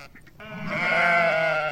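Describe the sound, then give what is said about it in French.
A flock of about 130 ewes and their lambs bleating outdoors, the lambs calling to the ewes, with one long, loud, wavering bleat swelling up after a quiet start and holding to the end. No one speaks. “déjà on les, entend, il y a un beau troupeau de, brebis.”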